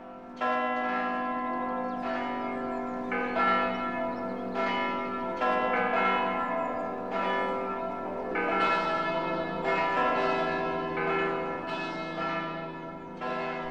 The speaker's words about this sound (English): Munster is a town where you often hear a chorus of church bells.